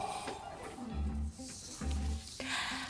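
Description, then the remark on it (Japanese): A loud, deep roaring cry bellows out in two heavy bursts, like a voice letting out a war cry, with a bright electronic backdrop around it. “雄たけびやんなきゃいけないわけね”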